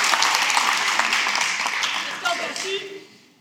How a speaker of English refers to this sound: Can y'all give a round of applause for our Navarre team? Thank you. Thank you. Appreciate it.